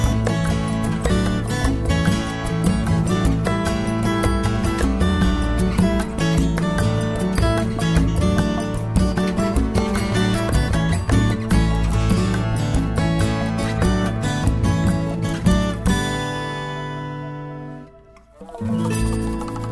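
A song plays at full, steady volume with dense, rhythmic instrumental accompaniment, then ends abruptly near the close, leaving a brief low fade.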